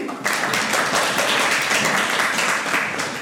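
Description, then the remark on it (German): A school's international preparatory class (IVK), sitting as the audience, claps together in a steady, dense burst of applause that stays loud for a few seconds, with many overlapping hand claps and no talking. “Ihr dürft jetzt einmal applaudieren.”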